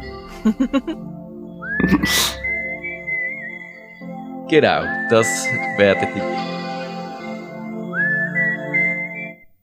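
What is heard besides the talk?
whistled melody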